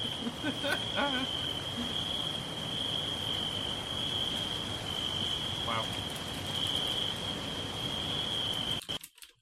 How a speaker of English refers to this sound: Night, wild nature ambience, lots of crickets, light wind blowing